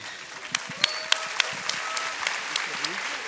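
A church audience claps steadily for a few seconds, giving applause to the Lord, a dense patter of many hands with sharper individual claps popping out at irregular moments, fairly loud throughout.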